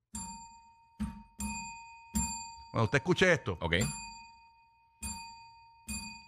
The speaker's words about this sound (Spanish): De la campanita. Ah, cuando usted escuche- esa es la señal de que usted tiene que cambiar al 95.3 porque le vamos a decir algo bien importante.